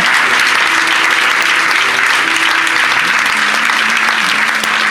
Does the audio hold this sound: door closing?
no